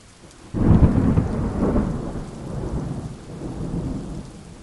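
A heavy roll of thunder breaks in abruptly after a quiet moment, then rumbles on at a steady, gradually fading level beneath a wash of rain, with no voices.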